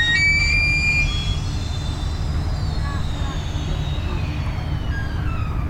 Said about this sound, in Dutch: dat piepen dat is uh, het schip langs de kade schuurt. Dus met een soort van gejank komen we los van de wereld van verantwoordelijkheden. Moeizaam. Het lijkt wel een eh, zo'n walvis die aan het roepen is.